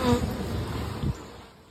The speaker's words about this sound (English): Oh, you talking about the bees? Yeah, that that buzzing. Ooh. it's about to tear my head off.